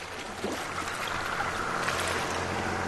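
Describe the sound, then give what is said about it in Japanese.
A boat motor drones steadily over water as the boat moves away from an island in Panama, its low engine hum blending with broad splashing wash and wind noise, fairly loud and continuous with no voices. “ボートの音が遠ざかっていく。”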